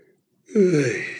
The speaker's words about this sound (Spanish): Voy a bostezar.